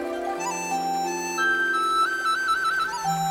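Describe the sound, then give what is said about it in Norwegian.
Soft flute notes play a slow, flowing melody over a steady, sustained low drone. The tones glide and hold at a constant moderate volume, with no voices. “Ja, jo, jo, det er bare noe med å si puste med magen, og så får du akkompagnert av fløyter rett etterpå.”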